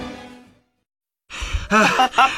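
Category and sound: human body sound, out-of-breath panting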